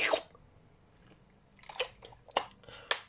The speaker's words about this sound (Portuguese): Só mandar aqui mais um tragozinho de água.